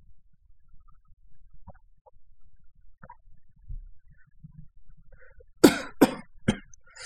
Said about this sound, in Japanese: なんか咳き込んじゃいますね。これはデルタ株かなっていうふうに、ね、思われる方もいらっしゃいます、いらっしゃるかと思うんですけども、まあ多分、そうではないと思います。